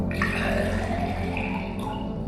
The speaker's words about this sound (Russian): Тогда из-под стола он достал кружку с водой и вылил ее в банку.